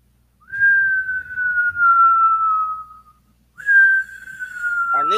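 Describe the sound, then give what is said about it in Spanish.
A police patrol car siren wail imitated by whistling: two long, steady tones that slowly fall in pitch, separated by a brief pause, loud with no one talking. “Los tres maleantes apresuran su carrera cuando escuchan el ulular de una patrulla.”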